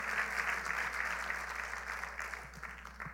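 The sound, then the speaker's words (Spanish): A church audience applauds the Lord steadily, a dense wash of many hands clapping at a strong, even level for the whole stretch, thinning slightly toward the end with a few distinct claps standing out. “Le un aplauso fuerte al Señor.”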